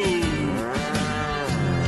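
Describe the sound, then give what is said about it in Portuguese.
Cattle moo loudly and continuously, a sustained low bellow with rich harmonics that rises and wavers, filling the whole stretch. “E afasta pra lá, boi, vai Brasil Rodeio.”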